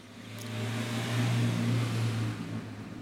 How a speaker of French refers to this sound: Voilà, une autre voiture j'ai besoin de le préciser euh, Je reprends.